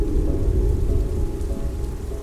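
Steady, dense rain hisses throughout while a deep, rolling thunder rumble churns underneath at an even loudness, with no voices.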